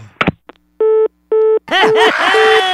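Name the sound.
telephone line tone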